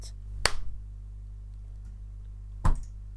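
Two sharp, crisp single hand claps about two seconds apart, made after a count of three, over a steady low background hum with no talking.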